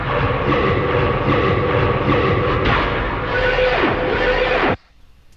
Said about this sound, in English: this actual bass patch or this bass sound comes in in the build up, but it's drowned in reverb. So it sounds like this. And it gets, as far as I know, less and less reverb over time.